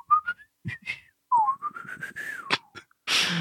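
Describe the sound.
A person whistles a short wavering tune by mouth, imitating a whistle sound effect, with a long rising glide, then a brief breathy hiss at the end; fairly clear, no talking.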